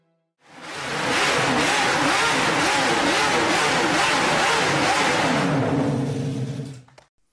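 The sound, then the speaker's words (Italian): A high-pitched six-cylinder engine of the Honda RC 166 Grand Prix racing motorcycle, nearly 60 years old, revs hard and continuously for several seconds, loud, its shrill wail rising and falling with throttle blips before cutting off abruptly. “Il 6 appena sentito nasceva per equipaggiare la Honda RC 166 da Gran Premio, che con il mitico Mike Halewood ha vinto due campionati del mondo 250 nel 66 e nel 67.”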